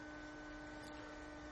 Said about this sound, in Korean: 저희 에어컨 음. 예, 냉각수가 빠져나오면서 그 고인물이 음. 펌프를 통해 밖으로 유출되고 있는 소리를 듣고 계십니다. 산, 지 5일 됐다고 이제 자랑을 하네.